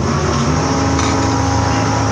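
A race car engine, played from an old video, roars steadily and loudly throughout, a continuous droning buzz with a sustained mechanical whine and no speech over it.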